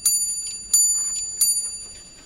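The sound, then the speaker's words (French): A 62 cm pendulum clock, raised just over a metre on a wall-fixed base, chimes, striking three bright, evenly spaced bell tones about a second apart, each ringing on and overlapping the next, clear with no voices. “Du haut de mes 62 cm et surélevé d'un peu plus d'un mètre grâce à mon socle fixé au mur, j'attirais l'attention de toute la famille grâce à mon carillon, une belle sonnerie des heures et des demi-heures.”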